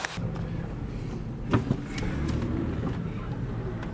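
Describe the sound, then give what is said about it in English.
A car arrives and its engine idles with a low, steady rumble, and a couple of brief clunks or door-like knocks punctuate it around the middle. “The car's here.”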